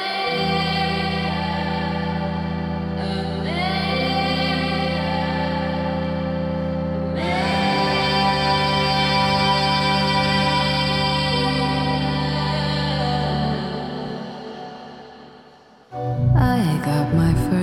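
A song plays with sustained, effects-heavy instrumental tones, layered with chorus and distortion. The sound swells partway through, then cuts off abruptly and gives way to a brief, different burst of sound.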